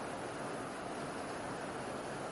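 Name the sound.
heavy rain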